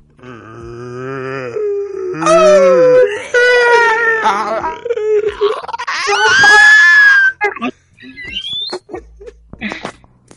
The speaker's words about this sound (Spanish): Es una presentación muy realista del rugido de, Godzilla.